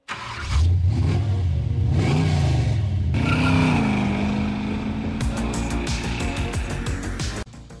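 A car engine revs up loudly, its pitch surging and falling a couple of times before settling into a steady, throaty drone with some rattling texture near the end.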